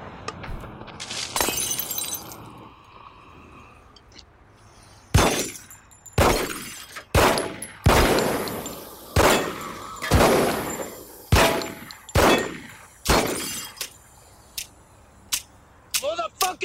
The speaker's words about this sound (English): But he shoots I did nine, the same thing. He shoots nine times and starts clicking. He's like, "Motherfucking gun!"